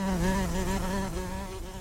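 A flying insect buzzes in a steady, droning hum that wavers slightly in pitch and continues unbroken for the whole moment, with no voices.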